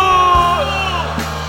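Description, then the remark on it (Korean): A large audience with both hands raised in prayer cries out "Lord" (Korean "주여") in unison, a loud, sustained mass of voices that swells and wavers for over a second. “이 시간 우리 두 손을 들고 주여 한번 외치고 역전의 은총 프린스의 영광을 보기를 위하여 기도하며 나갑니다.”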